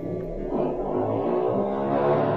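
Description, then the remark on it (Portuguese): A motorcycle passes by outside, its engine a steady low rumble that rises in pitch and grows louder toward the end, with no talking over it. “A melhor parte do podcast foi a moto passando.”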